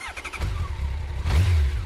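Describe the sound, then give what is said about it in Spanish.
A motorcycle engine revs loudly, its pitch climbing in quick bursts before settling into a deep, steady rumble that swells again near the end. No voices. “No le puedes dar hasta que le demos la moto.”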